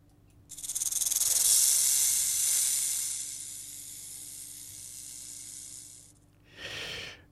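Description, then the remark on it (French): A rattlesnake's dry, hissing buzz rattles steadily for several seconds, loud at first and gradually tapering, then stops before one short final burst of rattling. “Mais ça, c'est comment un vrai serpent à sornette.”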